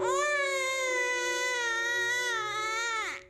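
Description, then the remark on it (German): An infant wails in one long, piercing, sustained cry lasting about three seconds, loud, holding steady before breaking off abruptly at the end. “Der früheste Affektaustausch ist in der Regel der zwischen Mutter und Kind. Ein eindringlicher Schrei.”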